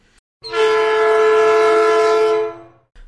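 A loud, sustained train horn blares for about two seconds over a low rolling rumble of the train, used as a transition sound effect, then fades out quickly; no one speaks.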